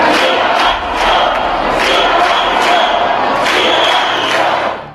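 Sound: crowd shouting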